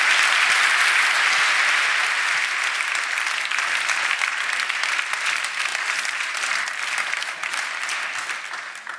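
A large audience claps steadily and warmly for about nine seconds, welcoming Giovanni Di Lorenzo and another guest on stage; the dense applause holds strong before gradually tapering off at the end, with no voices standing out.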